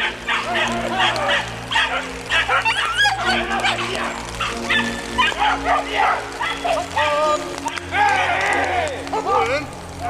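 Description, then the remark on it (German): A pack of hunting dogs barks and yelps frantically and continuously at a wild boar sow of about 20 to 25 kg, with overlapping high excited cries and a few whimpers, while a voice occasionally talks underneath. “Die Hunde haben eine Sau hier vorne!”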